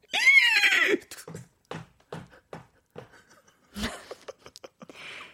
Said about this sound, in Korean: 아니 말 사운드가 되게 그럴싸했어요. 네, 네, 네, 진짜 네. 말이 온 줄 알고 제가 잠시 조금 말을 이을 수가 없었다 전해드리고요.